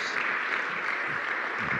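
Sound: audience ovation applause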